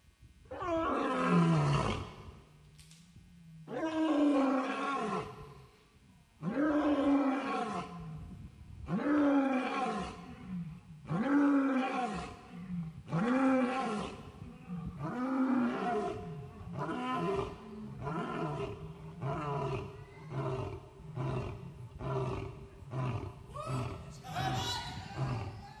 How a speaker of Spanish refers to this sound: Y busqué un rugido de león y quiero que lo escuchen. ¿Lo pueden oír? ¿Lo pueden poner por allá, por favor?